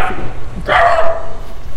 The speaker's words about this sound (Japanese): 失礼犬犬に吠えられました。